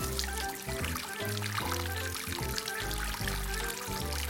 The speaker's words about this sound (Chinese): 啊，对了，还要去厨房里面洗碗，这些碗盘也要洗干净啊。